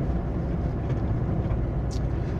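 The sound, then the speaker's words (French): A tractor's heavy diesel engine rumbles steadily as it drives past in an area with many fields, a dense low drone that holds at an even loudness throughout, with no voices. “Qu'est-ce qu'il y a comme tracteur par là par contre Bon, tu me diras, il y a plein de champs.”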